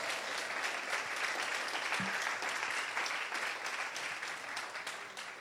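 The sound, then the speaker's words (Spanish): A church audience applauding loudly for Jesus, a dense, steady wash of many hands clapping that fills the whole clip without pause, with no one speaking over it. “Vamos a darle un aplauso fuerte a Jesús.”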